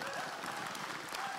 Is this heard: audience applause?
yes